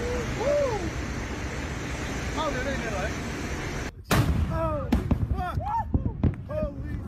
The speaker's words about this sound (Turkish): Pasifik Okyanusu'ndaki adalar ülkesi Tonga Krallığı'nda bir denizaltı yanardağ faaliyete geçti. İlk patlama dün yaşandı. Bölge ülkeleri alarma geçiren asıl büyük patlamaysa bu sabah saatlerinde meydana geldi.